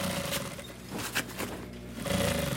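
An old sewing machine whirs steadily as a worker stitches thin fabric onto elongated, foot-shaped carpet pieces, stops briefly with a few clicks and knocks, then starts running again, fairly loud with no voices.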